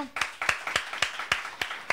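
Applause: sharp, evenly spaced claps about four per second stand out over a steady hiss of many hands clapping, moderately loud and with no voices over it.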